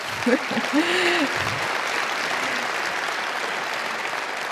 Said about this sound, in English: Oh, thank you. You can clap.